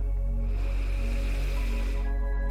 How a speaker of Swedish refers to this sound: Andas in.